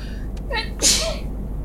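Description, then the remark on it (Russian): A single sneeze: a short rising inhale followed by a sharp, bright burst of breath, set against a low steady background hum. “Будь здоров.”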